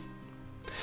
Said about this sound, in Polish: Ja Was przepraszam, jeżeli słyszycie szum w tle, ale niestety y, mój laptop zaczął trochę się chłodzić, a nie mogę go wyłączyć